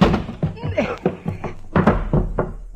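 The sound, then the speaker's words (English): Someone rams a door with their shoulder, producing a series of heavy thuds in an uneven rhythm, with strained voices and grunts mixed in between the impacts. The door gives only a little, moving about two inches. “Shove on it, dear. My thoughts exactly. Eh, it gives a little.”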